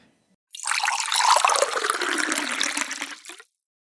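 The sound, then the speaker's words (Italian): Heated water pours steadily for about three seconds to prepare tea, a broad splashing rush that starts abruptly and cuts off cleanly, with no voices. “Abbiamo fatto una piccola pausa per scaldare l'acqua e iniziare a preparare il tè.”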